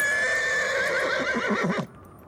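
A horse named Dusty whinnies loudly, a single long neigh with a wavering, trembling pitch that cuts off abruptly after about two seconds.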